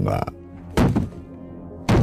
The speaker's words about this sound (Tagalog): Sinundan din niya ako at galit niyang kinalampag ang pinto ng silid ko.